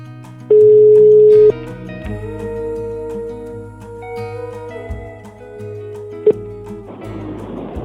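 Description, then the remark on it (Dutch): A single steady, loud telephone ringing tone of an outgoing call sounds for about a second over soft background music, followed by a second brief beep and then a rush of car-interior noise as the called person answers from a car. “laten we ehm, … gaan bellen”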